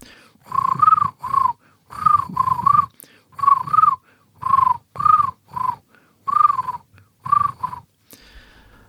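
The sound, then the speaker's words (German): A voice imitates a common crane's trumpeting call: about eight loud, hoarse, rolling honks in quick pairs, steady in rhythm, with short silences between them and no talking. “Und der Kranich singt der oder zwitschert der oder trällert der oder ja, was macht trompetet. der?”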